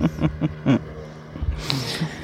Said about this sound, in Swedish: Du låter väldigt mycket, hör du lilla båt. Mm. Mitt i våran podd. Mitt i podden bara åker den förbi. Du tar inte hänsyn.